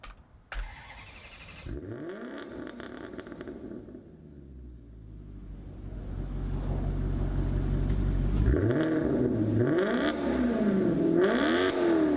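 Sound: V8 engine revving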